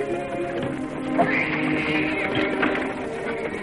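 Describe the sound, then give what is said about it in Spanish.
A horse being led and pulled by its bridle moves, its hooves and low snorts sounding steadily over a few seconds with a faint whinny rising midway, no one speaking. “Coge al caballo de las bridas y tira de él.”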